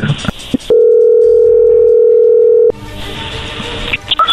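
A steady, mid-pitched telephone dial tone holds for about two seconds while a call is being placed, flanked by brief bursts of line noise and clicks before and after.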